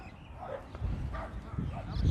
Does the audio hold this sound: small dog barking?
yes